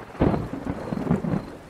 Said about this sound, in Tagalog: Eh, hindi naman tayo pwedeng magbukas ng bintana at papasukin tayo ng ulan.